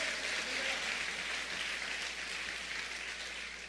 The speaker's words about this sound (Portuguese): Pode aplaudir para valer mesmo.